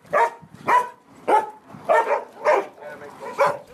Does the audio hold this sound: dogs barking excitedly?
yes